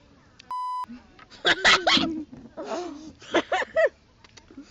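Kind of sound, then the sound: sound effect, censor bleep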